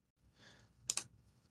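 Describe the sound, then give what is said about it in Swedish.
A soft breath, then two quick, sharp computer mouse clicks in quick succession, fairly quiet, with no talking, as someone clicks on a 'draw weapon' option in a form. “Jag testar att klicka på formuläret på dra vapen.”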